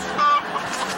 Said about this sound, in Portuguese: Que barulho é esse? Patrão, eu acho que é a galinha, patrão.